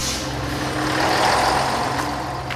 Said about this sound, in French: À Artigues, comme dans la plupart des villages autour d'Agen, c'est le car scolaire qui ramène les enfants le soir chez eux.